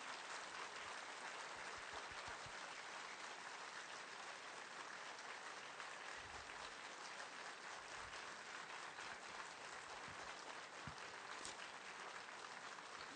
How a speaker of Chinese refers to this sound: 谢谢各位热烈的掌声，我们谢谢堪布，真是不远千里而来，请就坐。